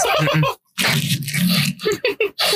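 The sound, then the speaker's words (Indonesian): Someone bites into and chews a burger, with moist, crunchy mouth noises in a long chewing stretch after a brief pause, then several short, quick chomps at the end. No one speaks. “Jadi ada asemer-asemer gigit burger.”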